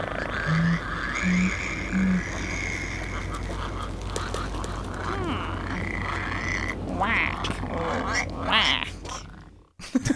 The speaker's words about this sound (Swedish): Så låter det, lite märkligt va? Det är alltså gölgrodans parningsläte.